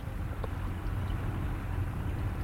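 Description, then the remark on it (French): A continuous low rumbling wash of sea noise at a port fills the whole stretch, steady and fairly loud, with a deep droning undertone and no voices. “On entend évidemment le bruit de la mer.”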